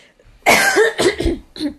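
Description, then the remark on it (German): A person coughs and clears their throat, a few harsh, raspy bursts in quick succession with a short pause before a final rough clearing sound. “vielleicht ein Hustenbonbon oder sowas nehmen.”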